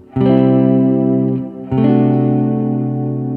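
An electric guitar strums a D major triad over a C bass note twice, a chord characteristic of the Lydian mode. Each chord rings out loud and sustained with a slightly effected, chorused tone, and no voices are heard.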